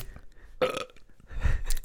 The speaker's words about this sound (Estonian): ma, ma ei tea, mis mind ajab krooksuma praegu.